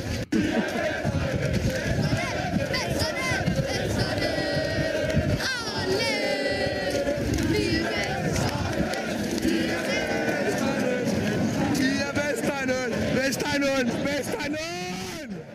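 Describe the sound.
A large crowd of Brøndby football fans celebrating the club winning the Danish Superliga championship in 2021, with many voices shouting, cheering and chanting together in a dense, continuous roar that stays loud throughout.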